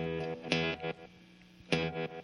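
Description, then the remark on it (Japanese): Electric guitar run through an effects pedal, a sustained distorted drone punctuated by two bright, swelling chord bursts with a warbly, echoing texture; played alone, no voices. “もうギターで遊遊びましょうのコーナーなんですけどギターとエフェクターかそやな”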